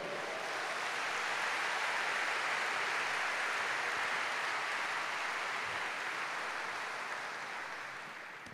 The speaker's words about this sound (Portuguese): É um bom lugar para você dar um aleluia, um aplauso ao Cordeiro.